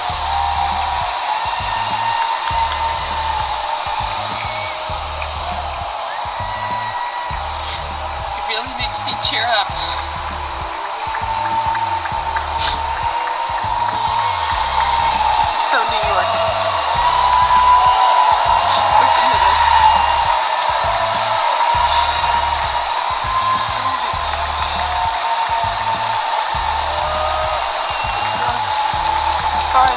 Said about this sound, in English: o'clock, New York City is applauding essential workers. It just started. It makes me tear up.